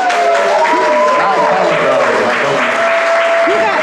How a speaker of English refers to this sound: Make some noise for him, y'all.